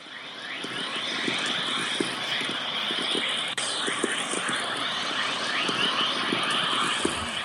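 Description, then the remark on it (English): Whistler-mode chorus radio emissions, a wave that can accelerate radiation-belt particles to very high energies, played back as sound: a dense, continuous wash of rising chirps and birdlike whistles layered over a steady hiss, with no voices. “Well, that, that wave that you just heard there was Whistler mode chorus, which is a particularly important wave which can accelerate particles in the radiation belts up to very high energies and that's one of the emissions that we observe.”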